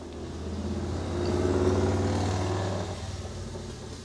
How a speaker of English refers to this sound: Yeah, that's uh, little little bit of an audio hazard. Local Trump dude, he's pretty funny actually, uh, but he's got a loud ass motorcycle.